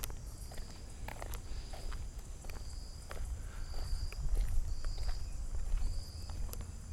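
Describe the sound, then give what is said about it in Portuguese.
Steady footsteps crunch along a park path beside a small lamp-lit lake on a hot day, at a regular walking pace, the walker trying to step more quietly, each step a short scuffing tap, with a constant high insect chirring and a low rumble of heavy truck traffic from a bridge behind them. “Eu vou tentar fazer menos barulho com os pés, vamos ver.”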